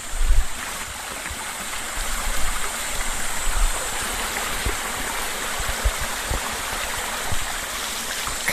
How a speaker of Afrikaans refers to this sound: hier die rivierstroom en al die skuim op die water.